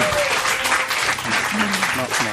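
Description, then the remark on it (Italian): A studio audience applauds steadily for the recovery of a guitar, a dense crackle of many hands clapping at once, with voices mixed faintly underneath the sustained clapping. “noi l'abbiamo trovata, un applauso perché abbiamo ritrovato la chitarra”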